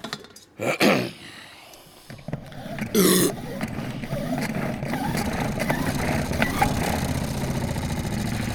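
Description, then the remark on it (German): A premium salad spinner from an expensive maker whirs steadily, a continuous rumbling, rattling spin that starts after a few brief clattering handling noises and keeps going at an even, fairly loud level. “Das ist eine Salatschleuder. Verzeihung. Eine Premium-Salatschleuder.”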